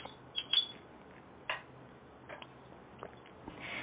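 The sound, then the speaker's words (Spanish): A spoon stirring a small cup of coffee (cafecito): about half a dozen light, faint clinks against a cup, spaced irregularly over a few seconds with soft scraping between them and no voices. “voy a revolver mi cafecito informativo como cada día de lunes a viernes temprano en la mañana.”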